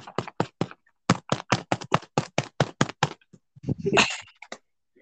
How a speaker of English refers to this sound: Like, yeah, it sounds like it's an inflated bag, all right.